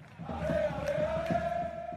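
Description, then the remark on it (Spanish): A stadium crowd roars in a dense, continuous wall of voices, with one sustained shouted tone holding steady across the whole two seconds over the chanting din. “Bueno, nuestra historia sonora de hoy nos lleva a un lugar en donde muchos gozamos, nos divertimos, vemos un buen espectáculo, em, gritamos, cantamos, chiflamos”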